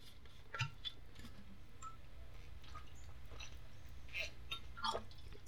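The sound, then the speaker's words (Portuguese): Someone quietly sips water: a few soft, wet swallowing clicks and gulps scattered over several seconds, with no talking, against a low steady background hum. “Bebi uma água aqui.”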